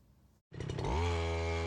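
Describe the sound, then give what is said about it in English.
The small motor engine of a self-made tree-climbing scooter, used in India to climb a 65-foot palm tree and harvest betel nuts, sputters to life after a brief silence, then settles into a loud, steady buzzing drone with a rising pitch. “Within five seconds, he's climbed the 65 foot tall tree all with the help of the self made device that he calls a tree scooter.”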